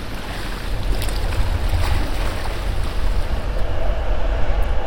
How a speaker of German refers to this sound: Ich steckte mir ein Stück Mango in den Mund, schloss die Augen und hörte das Meer rauschen, spürte ihre sanften Hände und genoss den Ohrenblick.